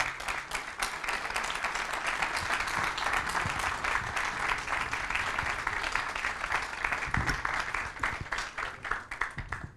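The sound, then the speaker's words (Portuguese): An audience applauds steadily for about ten seconds as Professor Manuel Sobrinho Simões, president of IPATIMUP, is introduced as a speaker, a dense wash of many hands clapping at an even, fairly loud level, with no voices standing out. “Não vou perder muito mais tempo, mas sim eh, eh, passo para a apresentação dos nossos palestrantes, começando pelo presidente do IPATIMUP, o professor Manuel Sobrinho Simões, a quem Peço uma salva de palmas.”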